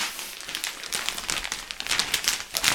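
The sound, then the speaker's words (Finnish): Crisp rustling and crinkling of a plastic bag holding a gift package as it is handed over, a steady run of papery crackles that swells and ebbs for a few seconds with no one talking. “lapisee muovipussin ojentuu tuosta.”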